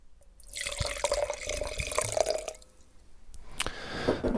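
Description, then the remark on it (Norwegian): Allegrini wine pours into a glass in a steady, bubbling stream for about two seconds, its gurgle rising in pitch as the glass fills, followed by a few soft clinks and dribbles. “Jeg har, eh, jeg lyst til å drikke litt, jeg, så her må vi ha litt i glasset.”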